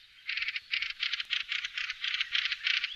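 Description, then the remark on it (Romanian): A fieldfare calls with a harsh, scratchy chatter: a steady run of rapid rasping bursts, fairly high-pitched and unmusical, going on for several seconds with no voices over it. “Cântareț cu un repertoriu nu neapărat melodios, are în schimb un penaj atractiv – gri albăstrui pe cap și târtiță, maro castaniu pe spate, abdomen albicios și piept ruginiu cu pete maronii.”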